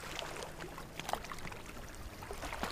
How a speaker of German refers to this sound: Und vielleicht hörst du auch das Plätschern an deinem Sub, an deinem Körper, wie jede kleine Welle zu dir gelangt.